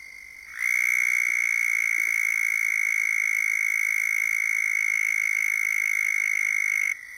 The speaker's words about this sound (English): Southern toad Anaxyrus terrestris, formerly Bufo terrestris.